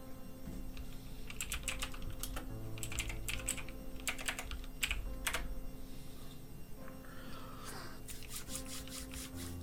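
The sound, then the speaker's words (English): Rapid computer keyboard typing, a loud run of sharp clicking keystrokes in irregular bursts with brief pauses, over a steady low background hum and no voices. “Oh, my click clacks are so loud now.”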